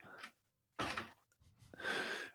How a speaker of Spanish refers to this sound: Eso era la puerta. Bueno, el caso es que. Para eh, cerrar la puerta no se ha levantado de la mesa.